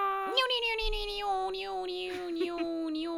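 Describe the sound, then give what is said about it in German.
A human voice imitates a cat's meow, a sustained, steady, high-pitched tone held for a few seconds with slight wavering, no other talking around it. “miau, ich muss schnell durchziehen, weil ich finde der Soundeffekt nicht.”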